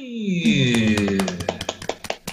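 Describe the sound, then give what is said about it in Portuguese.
Applause for the mothers in the form of a quick, steady run of about a dozen sharp claps, emerging from under a bright, downward-sliding tone that fades as the clapping takes over. “Palmas para as mamães”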